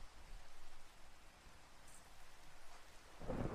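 Steady rainfall hisses throughout, with a low rumble of thunder rolling in near the end. No voices.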